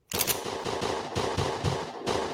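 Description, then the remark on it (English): Rapid bursts of gunfire crackle continuously, a loud sustained volley of shots fired in quick succession like automatic weapons, with no voices. “Gunshots.”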